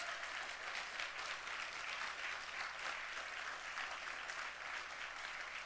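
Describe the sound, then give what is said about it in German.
An audience applauds steadily, a dense wash of many hands clapping at an even, sustained level with no pauses and no voices rising above it. “Können wir dafür mal einen Applaus geben, diesem Gott, dass wir vollkommen sind?”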